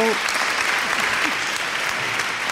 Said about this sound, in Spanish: No, aquí todo el mundo aplaudiendo.